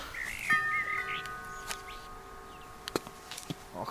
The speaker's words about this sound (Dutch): Ik kom hier bij de voordeur. Die is helemaal behangen met, met koper en houtsnijwerk. Ik druk op de bel.